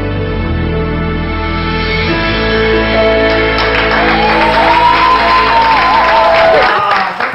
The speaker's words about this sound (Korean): 어, 박수가 멈출 수가 있잖아. 이게 내가 멈추고 싶은데 소리가 안 멈출 거야. 이게 지금.